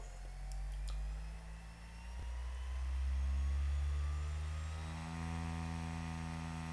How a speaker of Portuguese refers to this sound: Já estão a ouvir o CD a rodar, não é pessoal? Sim, o CD é? está a rodar. O Derek não conseguirá ouvir, mas vocês vão poder ouvir.